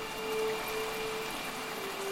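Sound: rain falling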